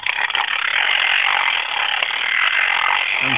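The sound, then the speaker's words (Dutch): A mechanical timer is wound with a rapid, continuous ratcheting click, a dense bright clatter that holds steady and fairly loud for a few seconds with no voices. “ik vraag me af, kunt je met die timer ook zien hoe lang je dan bezig zijn met die timers te draaien”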